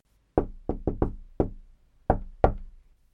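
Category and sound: household object, knocking on a door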